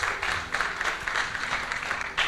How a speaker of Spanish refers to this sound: ¿Cuántos dan un aplauso a Cristo? Gloria a Dios, hermanos.